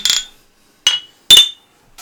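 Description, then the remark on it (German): Several bright clinks of glasses of non-alcoholic drink raised in a toast, three sharp taps spaced about half a second apart with a fainter fourth at the end, each with a short shimmering ring. “Stößchen.”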